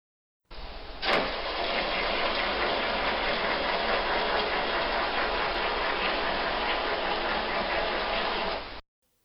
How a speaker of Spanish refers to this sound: Es un motor diésel. Es un motor diésel.